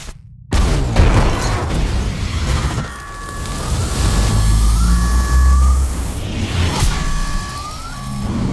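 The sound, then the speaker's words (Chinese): After a moment of silence, a sudden loud explosion bursts in and gives way to a sustained roaring rumble, with repeated high-pitched electronic alarm tones sounding over it. “但是爆炸制造的强气流并没使飞船靠近飞行器太多”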